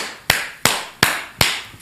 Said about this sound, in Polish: a Ziobro bije brawo. Czyli zobaczcie, to jest upodlenie ludzi, że oni klaszczą, kiedy Ktoś wychwala przestępców lub, lub wspólników przestępców